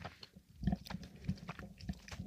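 Chewing of the last gummy bear, soft moist squishing and smacking repeated at an uneven rhythm for a couple of seconds, quiet with no talking.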